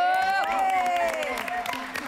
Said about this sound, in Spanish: Adriana Lubier, un aplauso. ¡Bravo!